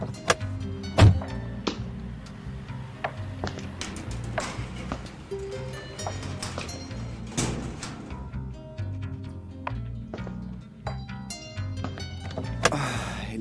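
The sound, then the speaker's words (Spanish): A pickup truck's engine rumbles low and steady as it rolls slowly, in the late afternoon, into the parking area of a house opposite the Cantón Norte, punctuated by scattered clicks, thunks and mechanical clunks. No one speaks. “Pasadas siete horas, cuando la tarde comenzaba a caer, el carro por fin entró en el parqueadero de la casa frente al Cantón Norte.”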